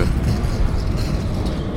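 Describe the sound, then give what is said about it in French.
A tram rolls past close by, a loud, steady low rumble with a rattling mechanical hiss that fills the whole moment without letting up. “très immersif, là, comme vous pouvez le constater, là, juste à côté de moi, vous avez entendu un tramway passer.”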